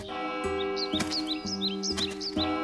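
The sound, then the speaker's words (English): Birds sing in quick, bright chirps and twittering calls, repeated every fraction of a second over a steady, sustained musical drone with soft rhythmic pulses underneath. “Birds sang just for him.”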